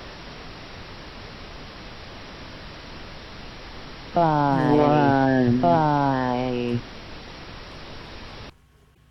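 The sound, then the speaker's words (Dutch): A distorted audio CAPTCHA plays: a steady wash of loud static hiss, with a synthetic-sounding voice speaking two short words in its middle, then the noise cuts off abruptly. “Maar ik heb al gemerkt dat die audio uitdaging niet echt eh, verstaanbaar is.”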